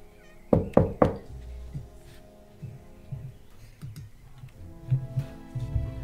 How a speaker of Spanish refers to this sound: Toco la puerta.